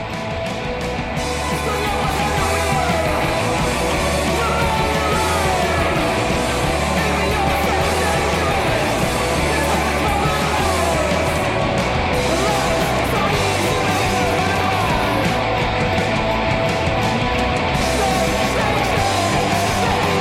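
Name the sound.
song played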